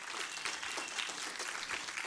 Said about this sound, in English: So, would you applaud the Lord on Labor Day as you're seated?